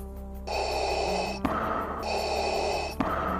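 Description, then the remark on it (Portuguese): Two long, heavy mechanical breaths, each a loud hissing rush with a faint click at its end, like a respirator cycling in a steady rhythm over a low background hum. “E com isto, tu escuta uma respiração pesada, próxima aos vultos como se fosse uma respiração de um equipamento médico.”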